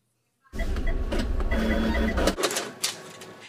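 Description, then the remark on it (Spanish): A ticket machine prints lottery tickets with a steady, loud mechanical whirring and chattering for about two seconds, then stops, followed by a few clicks and rustles. “es el sonido de una máquina que echa a volar la imaginación y que pone un poco de esperanza entre los compradores de los boletos.”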